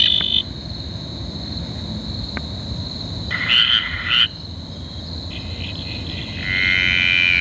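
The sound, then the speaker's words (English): The call of a graceful tree frog (Litoria gracilenta), played back from Frog ID: a high, buzzing trill in repeated bursts, louder toward the end, over a steady background of insects and night ambience, with no talking. “so that's the graceful tree frog.”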